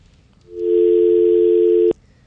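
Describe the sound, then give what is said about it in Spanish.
A loud, steady telephone dial tone hums for just over a second after a phone call drops, then cuts off abruptly, leaving faint background noise and no voices. “Se cayó.”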